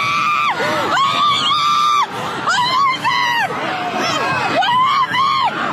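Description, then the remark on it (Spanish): A chaotic crowd screaming at a parade in Waukesha, Wisconsin, recorded immediately after a vehicle sped through the participants, with many overlapping high-pitched shrieks and wails rising and falling continuously, loud throughout with no pause, some cries sustained and others breaking off abruptly. “La escena era caótica como lo revela este video grabado inmediatamente después de la tragedia.”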